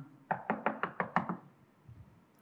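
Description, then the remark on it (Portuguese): Six quick, evenly spaced knocks rap on a wooden door, fairly loud, then stop, leaving a faint low rumble behind. “bateu na porta.”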